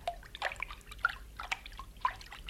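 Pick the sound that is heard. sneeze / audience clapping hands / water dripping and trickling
water dripping and trickling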